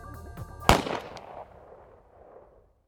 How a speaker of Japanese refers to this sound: 静寂の中銃声が鳴り響いた目の前が真っ暗になった撃たれた